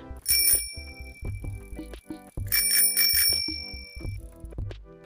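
A bright, metallic bell rings twice, about two seconds apart, each ring lingering as it fades. A steady, rhythmic musical backing plays underneath, and nobody speaks.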